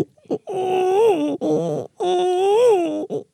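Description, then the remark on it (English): A person's voice mimics a baby crying in two long, drawn-out wailing bursts with a brief choppy sob between them, sounding loud but noticeably deeper than a real infant. “If the baby had steroids or something, he sounds a little deep.”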